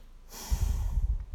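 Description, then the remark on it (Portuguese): A single deep breath drawn in sharply through the nose, fairly loud, with an airy hiss and a low rumbling rush lasting about a second, no talking. “respira fundo e já consegue voltar para o seu foco.”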